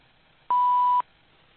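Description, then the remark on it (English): A single steady electronic beep at one pitch lasts about half a second, loud and clean against a faint background hiss, like an answering machine signaling to record. “Please leave your name and phone number after the beep.”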